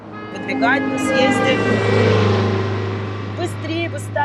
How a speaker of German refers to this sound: Dann würde ich dieses laute Hupen sofort unter Strafe stellen.